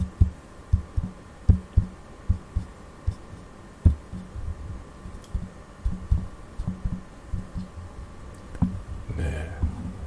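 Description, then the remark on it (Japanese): Soft, dull thumps and taps of fingers handling a device's body, coming in an uneven series of low knocks with brief scuffs between them, and a slightly longer rubbing noise near the end. “まあ、本体これね本体触るとまあこういうふうにね本体を触る音はこんなふうに入ります”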